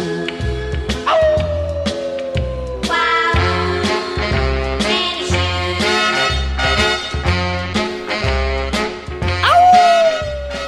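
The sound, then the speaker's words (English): A long, wavering werewolf-style howl slides downward in pitch near the start and again near the end, riding over a loud, bouncy music track with a steady thumping bass beat. “We'll know where are at the bloodier go-go when we hear a werewolf's howl.”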